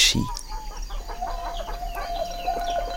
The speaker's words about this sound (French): Ce matin, c'est la fin de la mousson et le soleil brille enfin. Le coq chante très fort et réveille tous les habitants.